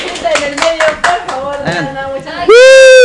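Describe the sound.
A few people clap in a quick, steady rhythm to welcome a special guest on a livestream while excited voices call out over it, then a loud, sustained high-pitched cry cuts in at the end.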